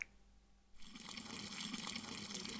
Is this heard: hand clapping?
no